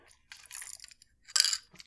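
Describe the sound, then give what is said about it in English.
Two quick slurping sips from a drink, each a short airy burst with a pause between them, fairly quiet and with no talking. “Um, one second, let me take a little sippy sip.”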